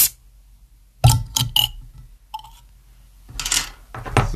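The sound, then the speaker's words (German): A bottle is opened in a room in Flensburg: a few sharp clicks and clinks of glass and cap, a pause, then a burst of airy hissing fizz. No one speaks. “Ich würde sagen, wir machen es auf. Wieder mal schön ASMR.”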